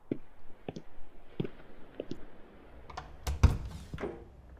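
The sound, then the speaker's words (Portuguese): A pen scratches and taps across paper in short, irregular strokes as an important letter is written, fairly quiet, with a louder cluster of scribbles near the end and no one talking. “Ah, por favor, a caneta. Tá aqui vou escrever uma carta importante agora e não deixa ninguém me atrapalhar, ok?”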